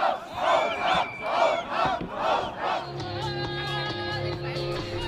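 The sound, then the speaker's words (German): A crowd of counter-demonstrators shouts down a Pegida rally near a refugee protest camp as police intervene, chanting in loud, rhythmic bursts, roughly one per second. Then the chanting gives way to a sustained mass of voices with a steady droning tone underneath. “Die Polizei geht dazwischen, Gegendemonstranten schreien Pegida nieder.”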